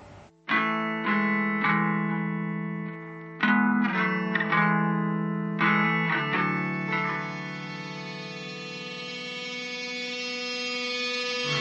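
A youth band's song, recorded about 15 years ago, opens with loud, distorted electric guitar chords struck in bursts, then ringing out into a sustained, effect-laden wash with reverb. No singing yet.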